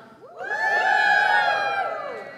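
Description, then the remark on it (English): An audience erupts in a loud, sustained group whoop and cheer in answer to a question about how many have iPhones, voices rising together into a bright, high-pitched chorus that swells and holds for about two seconds before tapering off. “Very sophisticated woo, too, by the way.”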